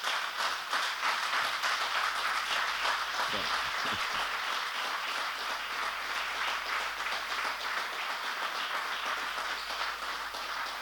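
A crowd applauds with dense, sustained clapping that holds a steady, fairly loud level for about ten seconds, with a faint murmur of voices mixed in.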